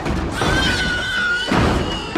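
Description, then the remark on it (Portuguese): A loud, shrill robotic squeal like a pig, holding a high wavering tone for about a second, framed by rough noisy bursts before and after. “Eh, é, pronto, é, é, melhor, sempre é melhor do que ter o som de um porco a chiar, não é?”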